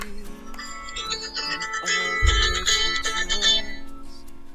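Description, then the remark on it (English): A phone rings with a melodic, chiming ringtone, its bright electronic notes repeating steadily over a busy background with some voice and a low thump midway. “Sorry about the phone.”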